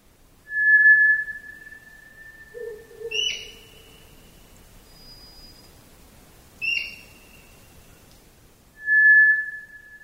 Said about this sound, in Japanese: 虎ツグミの鳴き声です虎ツグミは日本のつぐみの仲間では最も大きく体長およそ30センチ鳩より少し小さな鳥です